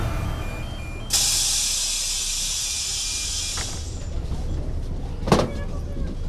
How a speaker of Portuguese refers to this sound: Primeiro o autocarro, que arranca de portas abertas. Olha a porta!